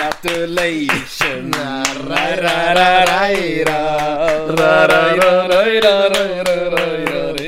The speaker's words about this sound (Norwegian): Vi gjør det, vi tar applaus